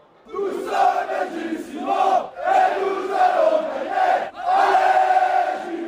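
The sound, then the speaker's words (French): A large tennis stadium crowd roars and cheers loudly in reaction to Gilles Simon, the noise surging in three big waves with brief dips between them, sustained with many voices shouting together. “Ce que je vous propose, Eric, Amandine et vous qui nous écoutez, un petit bonbon, une trentaine de secondes, juste de l'ambiance et de la réaction de Gilles Simon.”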